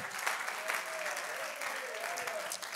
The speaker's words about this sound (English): Come on, if you receive that now in your spirit, clap your hands unto the Lord. In Jesus' name